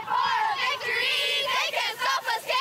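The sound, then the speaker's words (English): A crowd of high school football fans in the stands at the Toronto District High School Football Championships cheers and yells loudly, a dense sustained roar of many voices that swells in several quick surges toward the end. “fans finally back in the stands cheered on their favorite player”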